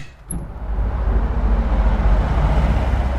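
After a brief quiet moment, a steady roar of heavy road traffic on the B3 federal highway in Jesberg, Germany, swells in and holds, a dense low rumble of passing vehicles heard through an open window of the mayor's office in the half-timbered town hall, outside rush hour, with no voices.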